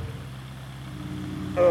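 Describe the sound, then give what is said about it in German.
A helicopter rotor spinning up to about 200 revolutions before flight: a steady low mechanical drone with a rumbling pulse, then a sudden louder whine and hiss rising in over the final moments. “Jetzt rotieren wir da oben an unseren Rotor ein bisschen vor. Kann man ein bisschen zischen hören gleich.”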